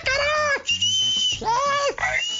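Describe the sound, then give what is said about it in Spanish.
Someone imitates with their voice the shrill whistling of an impatient cinema audience: a few loud, piercing whistle-like calls, some held steady and some sliding downward, repeated in quick succession. “Imagínate, y la gente que se ponen a chiflar, hazme ah, chido favor.”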